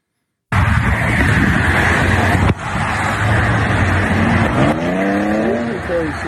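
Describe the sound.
Steady roar of interstate traffic beside a line of cars, with a vehicle's engine whining upward in pitch as it passes near the end; faint muffled voices may sit under the noise.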